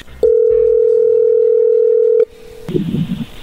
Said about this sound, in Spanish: A ver, ahí se está marcando, le va a marcar el lobo, no haga ruido, ¿ok?